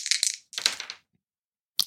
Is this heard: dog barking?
no